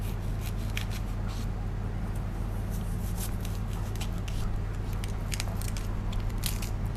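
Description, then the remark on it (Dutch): A knife slices through crisp endive, cutting it into strips in a series of quick, crunchy cuts at an uneven pace, over a steady low hum. “Eh, ik denk dat ik stroken van maak, vind ik leuk.”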